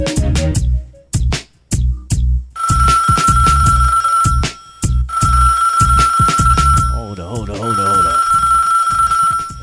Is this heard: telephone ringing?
yes